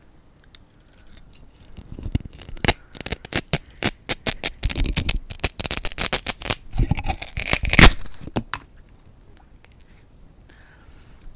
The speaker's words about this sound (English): Here's a big block of styrofoam, you fuckhead. Cut it. Okay, so now we're going to cut the styrofoam.